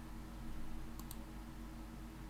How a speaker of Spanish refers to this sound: Es muy loco porque voy haciendo clic y se van abriendo nuevas nuevas páginas.